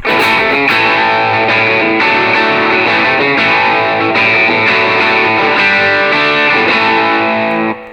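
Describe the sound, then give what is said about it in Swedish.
A distorted electric guitar plays loudly through an amp, sustained chords ringing with a thick, saturated tone and bright upper edge, continuous for several seconds with no talking. “Vad säger du om lite mer topp på den där? Ja, lite öppna upp den lite grann så.”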